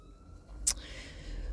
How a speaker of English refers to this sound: Oh, that's an ambulance, not a police car coming for me for my illegal use of, uh, of an MP3 in my previous episode. Um, if you can hear the there were some sirens behind me.